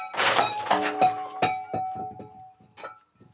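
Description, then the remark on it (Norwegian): A loud metallic crash as a pot, the pen pot of the show Nitimen, is dropped on the floor, followed by a scatter of clinking contents and a long ringing tone that slowly fades, with a few small rattles at the end. “Jeg mistet Du mistet en gryte med penger.”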